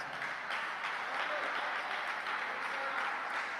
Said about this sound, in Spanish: Dele palmas, palmas, palmas para ti.